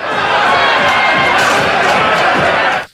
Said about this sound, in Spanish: Oye, pero la gente que gritaba fuera o qué le decían? Eh, les estaban diciendo traidores, que se fueran